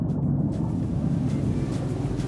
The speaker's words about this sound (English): Watch out, there's another boat.